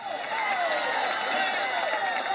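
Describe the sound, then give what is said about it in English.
A dense, steady roar of a large crowd on their feet cheering throughout, loud and continuous with overlapping voices and shouts, fans in the stands during overtime of a football game in Corunna. “We've got the overtime to finish off here in Corunna, the crowd on their feet.”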